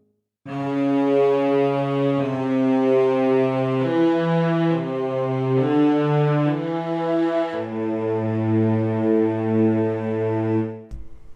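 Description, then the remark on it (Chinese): A lone cello plays a plain, low basso continuo bass line of long bowed notes, moving stepwise between pitches every second or two, steady and fairly loud with no accompaniment or voices. “基本上大提琴会提供单纯的低音支持，像这样。”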